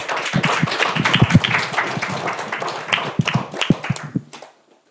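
A crowd applauds with dense, overlapping claps that rise quickly, sustain, and then thin into a few scattered sharp claps before cutting off into silence near the end.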